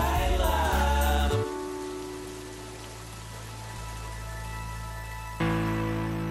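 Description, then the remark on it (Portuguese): Steady rain hisses as a soft, continuous wash under sustained musical tones, swelling louder where the music returns at the start and end. “foi mais um passeio, desta vez à chuva, por mais uma banda sonora do teatro português.”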